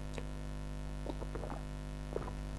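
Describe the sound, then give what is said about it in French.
A person takes a few short, quiet slurping sips of a real drink in irregular bursts, over a steady low electrical hum, with no one talking. “Ah, je fais du bruit en, buvant, c'est pour vous montrer que c'est une vraie boisson.”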